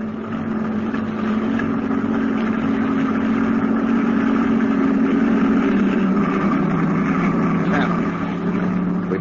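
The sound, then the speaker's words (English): A truck engine, started by a sergeant to fall in at the end of a convoy, idles steadily with a low, continuous rumble, holding a constant drone for the whole stretch. “Start your engine, Sergeant.”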